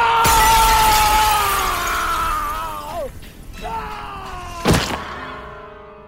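A long, falling groan-like tone slides downward, then a single loud crash of a closed window's glass shattering as a body breaks through it bursts out near the end and quickly dies away.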